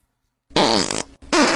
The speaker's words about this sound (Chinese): 突然想放屁，正好身旁有一个人在蹬摩托，砰砰砰，想借此机会掩盖自己的屁声，哪知道用力过猛，声音太大。